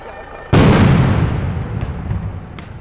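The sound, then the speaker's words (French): A GM2L combined tear gas and sound grenade detonates in a single sharp, loud bang after a brief quiet moment, then rumbles and fades slowly over the next couple of seconds; it holds 10 grams of CS giving white smoke, and its 7-gram charge without TNT reaches 160 dB at 5 meters. “grenade à effet combiné lacrymogène et sonore.”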